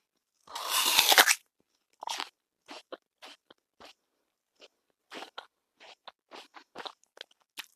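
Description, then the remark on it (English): A loud crunch of biting into an apple, followed by a series of smaller crisp crunches as it's chewed, with brief pauses between them and no talking. “I eat an apple every day and I still have to see the doctor.”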